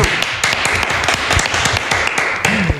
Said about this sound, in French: Applaudissements pour cette blague.